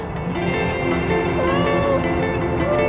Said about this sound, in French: Mais un chat perdu lui coupe la parole en miaulant.